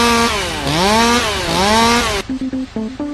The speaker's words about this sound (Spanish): Sí, sí, sí, una motosierra.